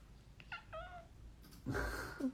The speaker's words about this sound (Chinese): 我的猫咪一直在旁边疯狂的爆跑酷，不知道可以听到声音吗？